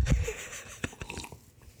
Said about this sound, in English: I'm gonna take a sip of this whiskey real quick. Oh, he's got whiskey.